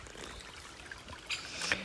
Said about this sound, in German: Ähm, ich sitze hier gerade am Bach.